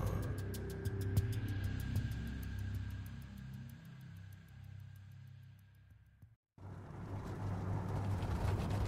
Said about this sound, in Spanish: Las gotas de lluvia se estrellaban contra el parabrisas con una ferocidad que no había visto en años. El sonido de los limpiaparabrisas en velocidad máxima acompañaba el monótono ronroneo del motor del camión.